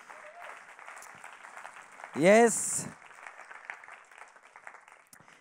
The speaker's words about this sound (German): Ich heiße so speziell alle Locations willkommen, die, die von Thun, Biel, Inti sind gekommen. Und äh, geben wir ihnen nochmal einen herzlichen Applaus. So cool, dass sie da sind heute Abend.